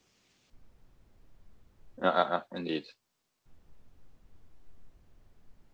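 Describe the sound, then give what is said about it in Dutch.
A faint, steady static hiss from interference on a video call line runs underneath a brief burst of talk, with a thin higher crackle at the very start and a short dropout where the line falls silent. “Ik hoor wel storing, dat wel. Hij zo een geraas, dat hoor ik”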